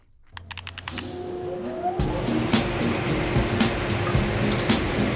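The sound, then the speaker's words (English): A car drives through a car wash in operation: a few sharp clicks and a steady mechanical hum, then a loud rush of spraying water and churning brushes with repeated thumps, without voices. “Okay, it's coming out of a car wash.”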